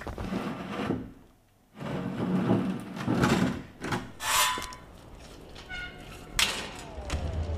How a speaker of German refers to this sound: Und zu ist die Tür.